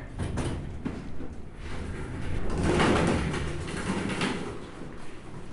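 Elevator doors slide open at the first floor with a steady mechanical rumble that swells in the middle and eases off, a continuous whooshing motion with no one talking.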